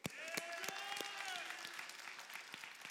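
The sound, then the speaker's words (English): An audience claps steadily for a freshman from a mission trip who recited a memorized Bible verse. A dense wash of hand claps with a few sharper individual claps stands out, sustained and fairly loud throughout, with faint voices mixed in the room. “Give it up for”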